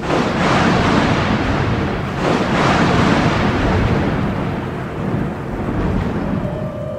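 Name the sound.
thunder rumbling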